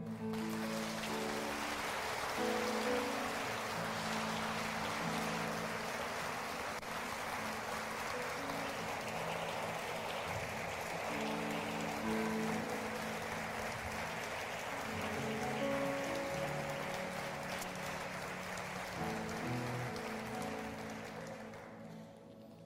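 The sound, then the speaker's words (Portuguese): A large church audience applauds Christ steadily for over twenty seconds, a dense wash of clapping over sustained keyboard or organ chords, tapering off at the very end. “Você pode aplaudir a Ele?”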